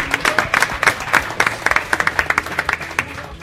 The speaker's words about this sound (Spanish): Y que esto se está emitiendo a través de Tucamón y de Radio Podcastellano y que tenemos que darles un aplauso porque se lo están currando, Ya ayer toda la tarde y hoy toda la mañana.